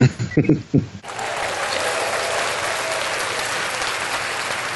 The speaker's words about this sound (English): We all deserve the applause. I'm used to the applause, so.